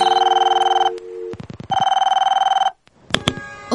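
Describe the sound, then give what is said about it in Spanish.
A telephone rings as a call is placed to a teacher, in two long electronic trilling bursts, bright and steady with a rapid warble, separated by a short pause and some clicks, then a brief rustle as it is picked up. “Y así, llamemos a la profe para que nos explique más.”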